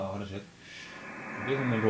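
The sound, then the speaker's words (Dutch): Continuous radio static from a 7610 receiver hisses fairly loud, with warbling tones and buzzy harmonic bursts rising and fading through the noise, as a signal is clicked on the scope and the receiver jumps to it. “storing, maar ik...”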